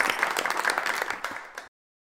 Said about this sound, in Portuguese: Uma salva de palmas aqui nosso presidente e vice.